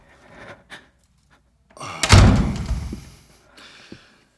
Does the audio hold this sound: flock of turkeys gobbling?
no